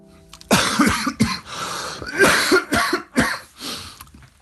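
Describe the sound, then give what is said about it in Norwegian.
A person with a painful cough coughs repeatedly in harsh, chesty bursts, several rough coughs in a row with brief breaths between them, fairly loud, with no talking. “Jeg har ikke opplevd noe pustebesvær i den forstand, annet enn at, eh, at den hosten har vært veldig vond.”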